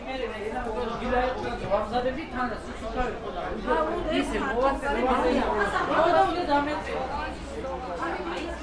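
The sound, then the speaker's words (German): A busy market in the Varketeli district of Tbilisi, covered by blue plastic tarps, with several loud, hoarse vendors' voices calling out in a foreign language and overlapping, a steady babble of chatter filling the background throughout. “Laute, heisere Stimmen, Sie klingen ein bisschen archaisch, impulsiv. Zurufe in einer sehr fremden Sprache.”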